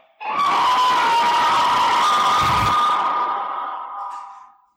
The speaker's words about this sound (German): So I recorded myself screaming like this awful thing, like into the wire recorder, and then st- put it into Logic and stretched it out and made it insane and weird. And here's the result I got.